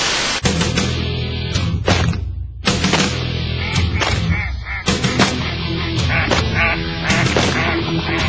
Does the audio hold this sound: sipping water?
no